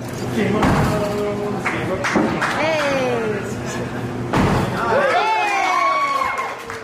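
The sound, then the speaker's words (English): A handful of sharp, heavy thuds as Andrew Yang throws axes into a wooden target in Osage, Iowa. The throws are spaced irregularly, while a crowd chatters and lets out rising whoops and cheers after the hits. “He's dancing around, throwing axes, and landing them on the target.”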